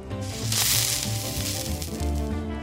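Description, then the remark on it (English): A steady, loud sizzling hiss of a hot wire slicing through foam spun on a lathe, as used to make the original Nerf balls, continuous for a couple of seconds, with low droning tones running underneath. “Well, the original Nerf balls were made by spinning foam on a machine called a lathe and cutting it with a hot wire”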